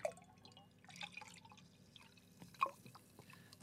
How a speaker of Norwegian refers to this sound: Dette er, eh, det er nydelige lyder som nå eh, og så tar du eplejusen og heller oppi.